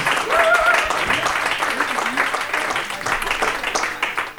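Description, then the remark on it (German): A crowd applauds steadily for several seconds as contestant number 21 is called onto the stage, dense clapping with a brief whistle near the start and scattered cheering voices mixed in before it begins to thin out. “In diesem Sinne, großen Applaus für”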